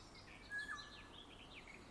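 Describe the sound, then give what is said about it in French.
Faint spring birdsong from several birds, including a cuckoo, blackbirds and tits: scattered high chirps and short whistled phrases overlapping, over a soft outdoor hush with no voices. “Inspirez ce chant d'oiseau, ces sons du printemps le jet, le coucou, les merles, les mésanges.”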